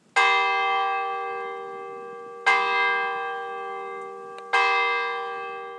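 A town clock in Gore plays the Westminster chimes, the same sequence as London's Big Ben: its chime bells ring out three resonant strokes, each struck a couple of seconds apart and left to hum and fade, loud and clear with no voices.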